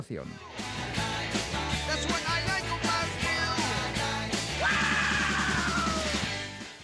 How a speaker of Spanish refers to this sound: Uy, qué grito.